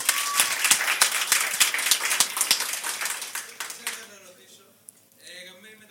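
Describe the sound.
A crowd bursts into applause, many hands clapping in a dense, steady patter for about four seconds before it fades out, leaving quiet murmuring voices.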